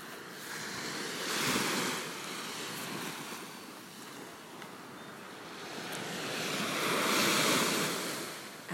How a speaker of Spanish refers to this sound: Agradecele el que te permita estar aquí frente al mar, observándola, admirándola. Dile cuál maravilloso es su mar.